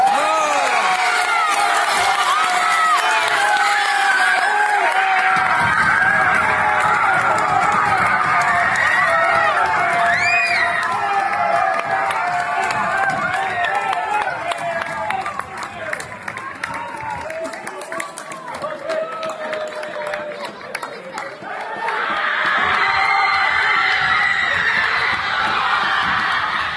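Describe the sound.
Teammates cheer and celebrate Colombia's first gold medal, in under-19 men's squash in Trujillo, Peru: a loud continuous crowd of shouting and whooping voices that swells at the start, dips somewhat midway, then surges again near the end.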